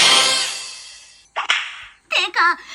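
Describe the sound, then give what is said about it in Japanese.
A whip, used as a playful punishment, swishes through the air in a loud whoosh that fades out, then a second sharp swish and crack, followed by a brief burst of voice. “それでこれでね、ヒュッてやったそうそうそうそうそう。”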